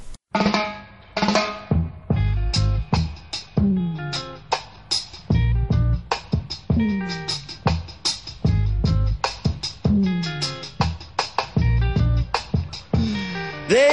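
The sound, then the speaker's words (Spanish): A late-1960s reggae song by a reggae legend and his group plays loud and clear, with a male voice singing over a steady, bouncing bass line and crisp rhythmic guitar chops throughout. “así sonaba la leyenda del reggae a finales de los 60,”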